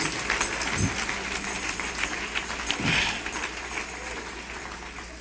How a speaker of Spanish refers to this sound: Un aplauso por las damas, ellas son tremendas.